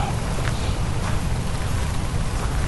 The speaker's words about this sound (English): and it's raining, I think. I don't know. I'm surrounded by trees.